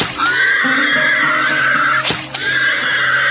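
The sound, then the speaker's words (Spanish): A pig squeals loudly and shrilly as it is stabbed in the heart with a knife, in Qatar: one long piercing cry that breaks off briefly near the end before starting up again, with no talking. “Pero es ilegal, bro, Brody, comer puerco aquí en Qatar.”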